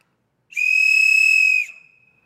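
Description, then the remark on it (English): A single loud, shrill blast from a safety whistle, blown from a boat to call for help, lasting about a second with a slight trilling flutter, then cutting off into a brief fading tail. No voices. “And so, on every boat, by law, you needed, needed to have a, a noise producing device so that if you got into trouble that you could cry out for help and so I pulled out my trusty whistle”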